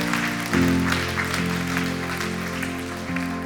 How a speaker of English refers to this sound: Yeah, put your hands together for that. That's a good place to clap.